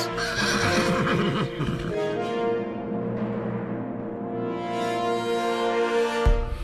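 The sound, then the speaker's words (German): Loud horse whinnies with shaky, wavering pitch ring out over several seconds, with a clatter of hooves underneath at the start and no voices. The horses are exhausted and travel in a convoy with cursing carters. “der war nun der Vormann eines traurigen Zuges fluchender Fuhrleute und erschöpfter Pferde als plötzlich der König vor ihnen stand.”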